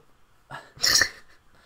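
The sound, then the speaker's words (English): A single sharp hiccup, a soft catch of breath followed by a louder, breathy burst, with no talking around it. “Uh, the hiccups started today as well.”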